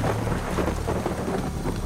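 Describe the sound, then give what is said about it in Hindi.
Heavy rain, falling for two hours on the streets of Shillong, pours down in a steady, dense hiss, with a deep low rumble underneath like thunder. Loud and continuous, with no voices. “दो घंटे से हो रही बारिश की वजह से शिलोंग की सड़कों पे चलना मुश्किल हो गया था”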